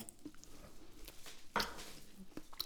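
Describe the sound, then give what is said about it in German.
Someone bites into and chews an extremely spicy fried egg with habanero hot sauce: soft, wet squishy mouth sounds and small clicks, with one louder crunchy bite partway through, then quieter smacking chews. “Ich beiße jetzt einfach rein.”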